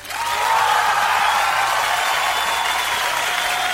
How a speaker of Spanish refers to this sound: Un aplauso para ….